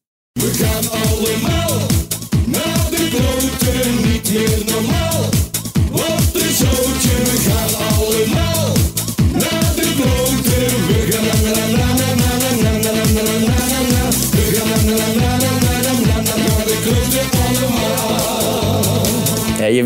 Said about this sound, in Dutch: Ondanks dat het feest vandaag in Eindhoven in ieder geval niet doorgaat, heb jij toch een carnavalskraker uitgebracht. Laten we even luisteren.